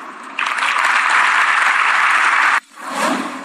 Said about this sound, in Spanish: De esta forma le aplaudieron al presidente de la República al reconocer que se equivocó, que él había pensado que el dato ya era público, que ya era conocido y por eso lo comentó